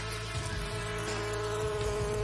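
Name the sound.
bees buzzing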